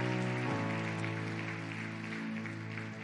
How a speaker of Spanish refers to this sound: Hay alguien aquí que puede darle un fuerte aplauso al Señor.